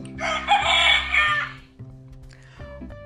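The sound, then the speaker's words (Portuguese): A rooster crows once, a loud, drawn-out cock-a-doodle-doo lasting over a second, over a steady low musical backdrop that continues after the call ends. “A galinha, ela tem uma família e aí tinha o senhor Galo.”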